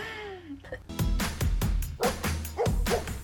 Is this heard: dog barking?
yes